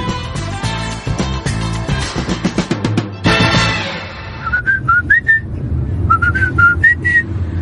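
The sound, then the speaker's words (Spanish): After a few seconds of busy instrumental music, a person whistles a tune in two short rising-and-falling phrases, the clear high notes riding over a low musical backing. “¿Y por qué me cantas el feliz cumpleaños ahora?”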